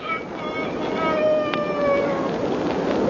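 A single long rooster crow at dawn rises and holds in a strained, harmonic cry, then trails off, over a steady hissing background with no talking.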